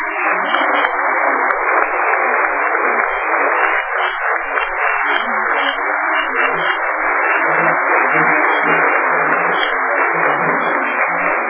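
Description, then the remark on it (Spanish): Sustained audience applause for the attendees, a departing colleague and the institution, a dense, steady wash of many hands clapping at once that stays loud and even for about eleven seconds, with no voices heard over it. “Quiero decir en resumen un aplauso para ustedes un aplauso para nuestra compañera que se va y un aplauso para una institución que se atreve eh, a ser la mejor en el país y probablemente en América Latina.”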